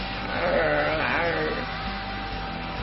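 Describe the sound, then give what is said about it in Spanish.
A person imitates a cat's meow with one drawn-out, wavering, nasal cry that rises and falls in pitch, then fades into a low, steady background hum. “y mira, mira, mira, como los gatos.”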